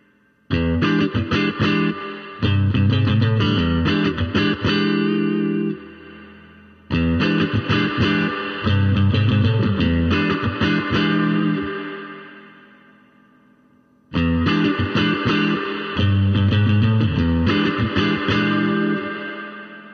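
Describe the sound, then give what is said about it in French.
An electric guitar played through a preamp with only a touch of spring reverb and nothing else added plays three loud strummed and picked phrases, each ringing out with a splashy spring reverb tail that decays into near silence before the next begins. No voices. “avec juste une petite pointe euh, de, de reverb à ressort, il n'y a rien d'autre qui est ajouté, il n'y a pas de reverb stéréo qui est ajouté au niveau de, la console.”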